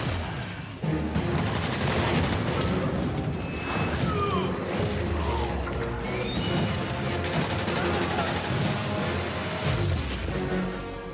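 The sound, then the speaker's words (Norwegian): Dense, continuous bursts of video game gunfire with rapid automatic shots, crashes and occasional booming explosions, loud throughout with no talking. “Dette her er heftig action, hører jeg. Lyden du hører, er fra Sniper Elite 4.”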